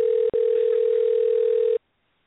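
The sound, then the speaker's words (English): A steady telephone dial tone hums at close range, broken once by a brief dropout near the start, then cuts off abruptly into silence after about a second and a half. “We got to get see. that man on the phone home.”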